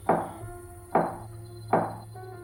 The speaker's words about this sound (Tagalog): Nang may kumatok na naman sa pinto.